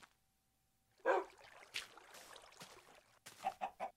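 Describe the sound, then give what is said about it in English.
A chicken clucks, one loud burst early on, then scratchy rustling and footsteps as it moves about, ending with three quick, short clucks in a row. “Oh, the chicken. I'm like, who's footsteps?”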